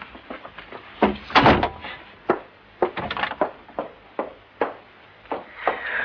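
A door is handled repeatedly, with a series of sharp knocks and rattling thuds from the wood, irregular bangs spread across several seconds and no talking.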